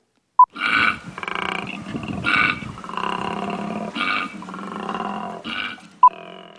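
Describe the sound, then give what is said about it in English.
A koala's bellowing call: a continuous series of deep, rasping, snoring-like grunts and roars with breathy inhales between, fairly loud, with a short tone blip at the start and end. “It's none other than the incredibly furry, totally adorable koala.”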